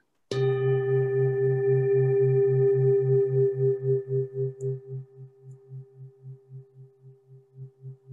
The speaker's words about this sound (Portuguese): Então sinta o som do sino.